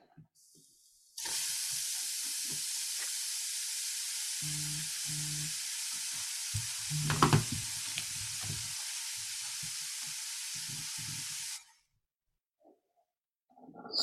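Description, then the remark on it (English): Burgers sizzle loudly and steadily on a hot grill, a dense crackling hiss that starts abruptly and holds for about ten seconds with faint low thumps underneath before cutting off into silence. “Sizzling hot takes are brought to you by their burgers. Gets me every time. The sizzle.”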